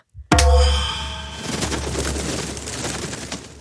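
A single loud slap across a king's face lands with a sharp crack, followed by a booming, ringing resonance and a noisy tail that fades over a few seconds. No one speaks.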